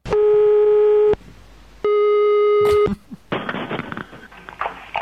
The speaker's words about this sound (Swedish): Vem är det som ringer? Jag ringer inte. Ringer du inte? Nej, det, är ju, det, det ringde ju min telefon. Ringde det din? Nej, det ringde denna.